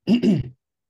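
A single loud sneeze, a quick two-part burst lasting about half a second, followed by silence.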